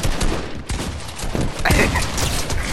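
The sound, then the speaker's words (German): Rapid bursts of video game gunfire crackle continuously, loud and dense, with overlapping shots and sharp impacts filling the whole stretch without pause. “es ist so los, wie ich keinen Schuss treffe, Digga.”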